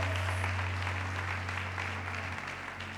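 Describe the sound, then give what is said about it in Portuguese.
A crowd claps steadily in worship, a dense wash of many hands applauding at once in praise of God, loud and sustained for the whole stretch, with a low steady hum running underneath. “Nós te louvamos, nós te damos glória, nós te damos adoração, porque tu és Rei, tu és Senhor, nós aplaudimos o teu nome, porque tu és santo, Pai, tu és santo, Deus, tu és santo, Senhor, aleluia.”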